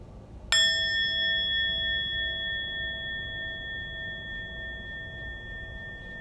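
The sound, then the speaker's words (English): A single meditation bell is struck once during a guided meditation, one of three rings of the bell. Its clear, bright ringing tone sustains and slowly fades away over several seconds against a quiet background, with no voices. “Listening to three sounds of the bell, allowing the sound to come in, the sound to fade away.”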